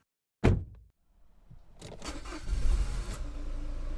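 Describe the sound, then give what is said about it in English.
A sharp thump, like a vehicle door shutting, then a packed family van's engine cranks and catches, settling into a steady rumble that builds as it pulls away, setting off for Florida. No one speaks. “So uh, we managed to get it all inside the van.”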